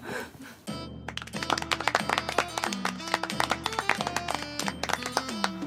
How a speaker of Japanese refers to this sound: ありがとうございますありがとうございますお心優しい拍手誠に心が温まっております